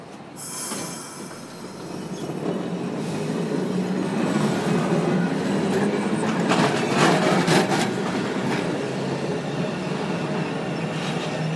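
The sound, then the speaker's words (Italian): A tram rumbles past in Milan, its steady rolling roar building and holding for several seconds, with high metallic wheel squeals rising above it and no voices. “lasciamo passare il tram e poi ci tuffiamo in un mare di coriandoli e ovviamente anche di chiacchiere.”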